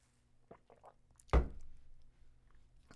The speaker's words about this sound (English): Okay, another sip.